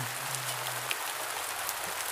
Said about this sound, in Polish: O szóstej rano za oknem szary deszcz.